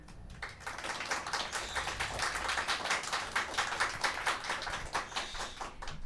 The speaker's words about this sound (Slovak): Poprosím vás o potlesk.